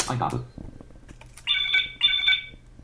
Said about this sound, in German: So, der heißt jetzt erstmal Klingelton 1.wav das ist eine Wave-Datei. das ist, die ist auch winzig klein. Ich zeige euch mal, wie die im Moment klingt.